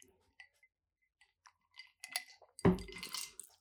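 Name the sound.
glasses clinking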